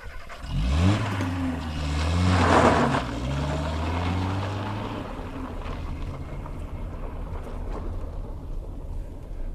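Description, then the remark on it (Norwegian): A car engine turns over and starts as the driver heads home, then revs and pulls away, its rising hum loud at first before settling into a steady rumble that slowly recedes. No one speaks. “Så da er det bare å hive seg i bilen hjemover.”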